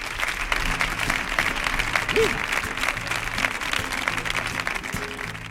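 Sustained audience applause fills the room, a dense wash of clapping that stays steady and fairly loud throughout, with faint crowd murmur and a brief vocal whoop underneath.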